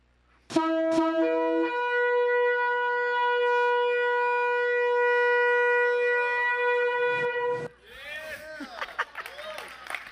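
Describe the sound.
A shofar (ram's horn), blown as on the New Year festival, blares, opening with a couple of short bursts and then holding one long, loud, buzzy note that steps up slightly in pitch, before breaking off into a murmur of voices.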